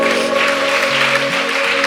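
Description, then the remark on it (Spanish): An audience at a Christian worship service claps loudly and steadily for the Lord, a dense wash of applause over sustained keyboard chords with a shifting bass line underneath. “De un aplauso fuerte al Señor.”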